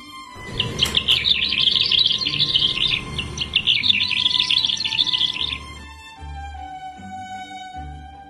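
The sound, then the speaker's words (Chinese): A lark's bright, rapid warbling trills in two long bursts over a steady tonal musical background; the birdsong stops partway through while the soft low tones carry on alone. “唱歌要学百灵鸟，迎着春风多美妙。”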